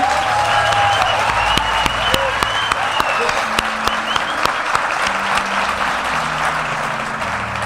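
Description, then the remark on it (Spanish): Steady applause from a crowd for the show's musical director, a dense wash of clapping that holds at an even loudness throughout, with sharper individual claps standing out and a low tonal hum running underneath. “Un aplauso para él.”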